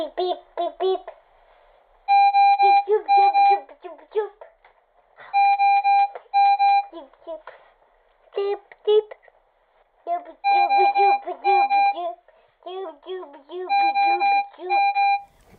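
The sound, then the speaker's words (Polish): A baby's medical breathing support machine beeps and sounds its alarm in repeated bursts of steady, bright electronic tones, fairly loud, with muffled voices in between; the sounds resemble an intensive care unit and show the machine is working and the child is breathing. “bo one brzmią jak po prostu jak, jak ojom, jak oddział intensywnej terapii, a jednocześnie w połączeniu z oddechem dają spokój rodzicowi, że rodzic może spokojnie spać, bo, bo są te dźwięki. Czyli ta maszyna pracuje, czyli dziecko, dziecko oddycha.”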